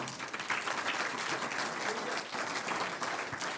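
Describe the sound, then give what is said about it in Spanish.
A church audience bursts into sustained applause for the Lord, a dense, steady wash of many hands clapping at once that holds for several seconds without a break and with no voices standing out. “Un aplauso al Señor.”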